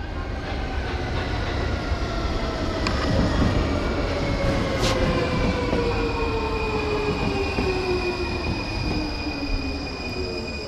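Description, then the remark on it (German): A Munich U-Bahn subway train runs steadily and loudly, its continuous rumble of wheels layered with the gliding whine of electric motors and a faint metallic squeal, with no one speaking. “Ich zum Beispiel würde ohne dieses Geräusch und ohne die Münchner U-Bahn gerade gar nicht für dich im Studio stehen.”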